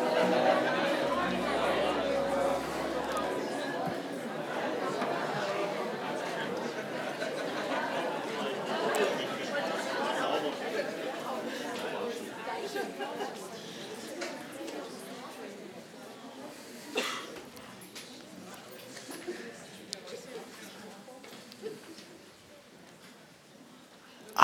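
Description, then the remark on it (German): An audience of people chatting and greeting the people around them, a steady overlapping murmur of many voices that gradually quiets toward the end. “Sag ein paar Leuten um dich herum Hallo.”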